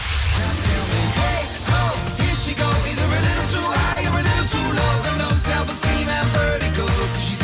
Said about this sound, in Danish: Det er jo en sang med …, den her.